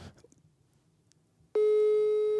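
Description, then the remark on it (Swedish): After a second and a half of quiet rustle, a loud, steady electronic phone tone cuts in abruptly and holds unbroken, a ringback tone from a call placed on speakerphone. “Jag ringer han på högtalare här.”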